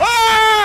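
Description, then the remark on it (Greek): An adopted family dog barks during a press conference in Athens: one loud, drawn-out bark with a steady, high, whining tone, lasting under a second with no other voices around it. “Αυτός είναι ο σκύλος τον οποίον υιοθετήσαμε.”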